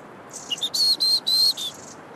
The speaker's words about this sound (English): Birdies! Hey, little robin! Little robin is my spirit animal, that is. Little robin.